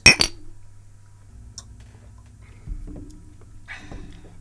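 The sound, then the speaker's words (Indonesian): A bright clink of glasses striking together in a toast right at the start, loud, followed by quieter scattered taps and clatter against a low steady hum. “Cheers. Cheers. Cheers.”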